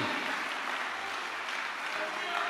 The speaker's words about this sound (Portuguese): Uh! Deus, aplauda o Senhor, pode aplaudir. Deus é extraordinário.